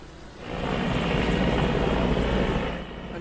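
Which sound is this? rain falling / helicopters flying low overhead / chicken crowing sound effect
helicopters flying low overhead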